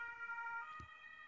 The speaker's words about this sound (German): Hier fährt ein Krankenwagen vorbei.